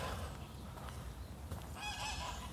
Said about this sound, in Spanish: Y ya, similar a los de Chapultepec hay unas barquitas bonitas, hay muchas gaviotas, que es lo que estamos escuchando.